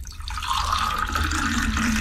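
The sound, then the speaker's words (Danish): Water pours steadily into a cup, a continuous splashing stream whose pitch shifts gently as the vessel fills, with no voices during the pour. “Øh, er det her koldt vand eller varmt vand?”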